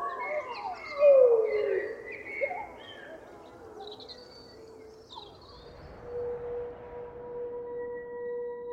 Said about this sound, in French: D'autres hurlements s'élèvent des cimes. Bref instant exceptionnel.